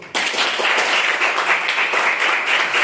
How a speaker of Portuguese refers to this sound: Amém. Aleluia. Você pede, porque é bíblico, pedir, pedir, dá, se usar. Então pede o que o Salomão pediu, sabedoria. E o resto está já no seu ministério. Amém. As palmas ao Senhor.